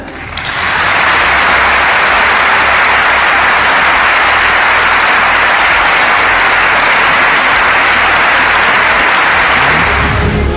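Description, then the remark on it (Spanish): Loud, sustained standing ovation from the deputies of the Bundestag, the lower house of the German parliament, for outgoing chancellor Angela Merkel; a dense steady roar of clapping that swells within the first second and holds evenly for about ten seconds, with no voices. “Así ha sido la ovación que ha recibido.”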